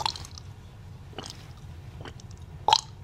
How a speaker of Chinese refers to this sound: 刚刚那会有口水音，对不对？嗯，有口水音，我自己在后置的时候。我就会觉，我就会要求我的后置的这个录音师，我说对不起，你可以帮这个口水音清一下，清一下。我觉得那个会影响到听觉，就是会有你看哦，比如说一个人唱歌跟唱歌之间会有一个这样